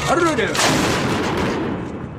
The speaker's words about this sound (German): Der an einem Kai des Flusses Niva verteute Panzerkreuzer Aurora hat nach Ablauf des Ultimatums einen Schuss aus seiner Bugkanone abgegeben. Das Signal zum sogenannten Sturm auf den Winterpalast.